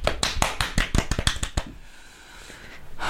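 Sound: applause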